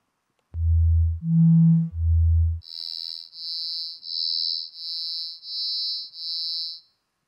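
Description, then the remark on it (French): A series of steady pure tones for a pitch perception demonstration: three low hums alternating in pitch, then six evenly spaced beeps at a single high pitch, clean with brief gaps and no voices. “Alors d'abord les sons purs, puis nous allons à ces sons.”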